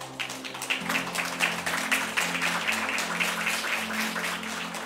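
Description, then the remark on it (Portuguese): A church audience, standing, applauds Jesus loudly and steadily, a dense wash of many hands clapping at once, with a low sustained hum of instruments underneath and no voices. “Aplaude Jesus bem forte, vamos lá.”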